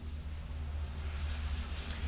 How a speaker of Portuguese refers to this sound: Ai, ó o carro, né? Pois é.